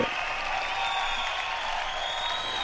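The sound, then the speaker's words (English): Steady, dense applause from an audience, a continuous wash of clapping at an even loudness throughout, with no one talking over it. “So we will give it up for her.”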